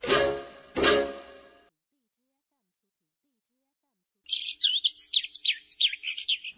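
After two short, loud bursts and a brief silence, a bird chirps in a quick, steady string of high tweets that runs to the end, clear.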